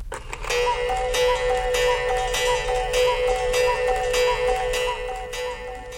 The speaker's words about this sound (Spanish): ¿Y el reloj de Cucú?